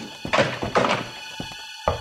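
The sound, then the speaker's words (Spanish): Heavy, dull thuds of a mother slipping and falling to the floor in a bathroom while getting out of the shower, a couple of broad impacts followed by a scuffle and a final low knock, with no voices. “Me resbalé saliendo de la ducha.”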